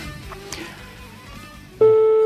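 A telephone ringing tone, a steady electronic hum-like beep, starts abruptly near the end and sounds loud after a stretch of quiet background noise, as a phone call is being placed.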